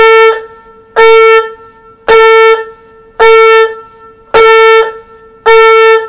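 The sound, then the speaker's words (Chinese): A bowed string instrument demonstrates sustained detached bow strokes, playing six firm, evenly spaced strokes on one steady mid-high pitch with full, even force and no swelling or fading, each note held then stopped cleanly before the next. “那断弓的这个保持，你听，整个声音它是比较比较扎实的”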